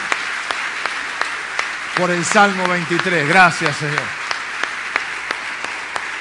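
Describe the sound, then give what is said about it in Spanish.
Steady church audience applause for the word of God after a psalm reading fills the whole clip, a dense wash of clapping that holds at an even level while a man speaks briefly over it in the middle. “Nos dar un aplauso a la palabra de Dios.”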